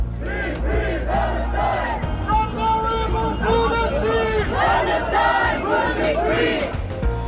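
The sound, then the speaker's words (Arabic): A large pro-Palestine protest crowd in Germany shouting continuously, many voices overlapping in loud, raised cries and chatter, with a dense, steady roar of noise throughout and no single voice standing out. “يبدو أن السلطات الألمانية لم تعد تتسامح مع المظاهرات المؤيدة لفلسطين كما كانت في السابق لنشاهد تعاملها مع المتظاهرين قبل أيام”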